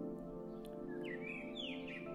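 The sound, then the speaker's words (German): A bird chirps in a series of bright, rising and sliding whistled notes over a steady low hum in the background. “Du kannst den Vogel aber nicht nur sehen, sondern auch das Zwitschern hören.”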